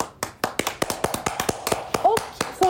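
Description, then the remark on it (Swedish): Applause in a short, lively burst: sharp, distinct, fairly loud claps patter along unevenly. Near the end a couple of brief voiced whoops or cheers rise over them. “Applåder.”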